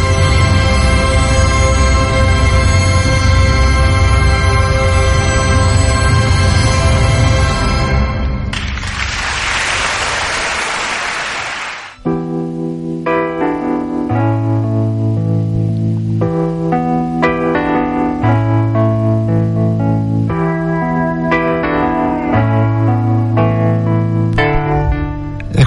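Soundtrack music from the film Buscando un beso a medianoche plays loudly with no voices: a dense full-band passage, a few seconds of hissing noise like applause, then a gentler melody of sustained, clearly separated notes.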